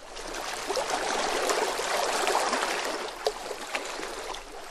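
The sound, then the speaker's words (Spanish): A baby manatee splashes water: steady splashing and churning for several seconds, a fairly loud wash of noise with a few sharper splashes near the end. No one speaks. “Sacaba su cabeza regordeta para ver a los de la tribu y le salpicaba agua para mojarlos.”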